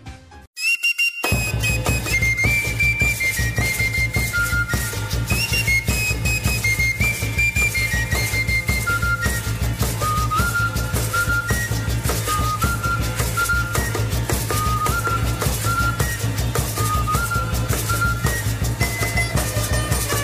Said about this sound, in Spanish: de su propia autoría en el género prehispano de México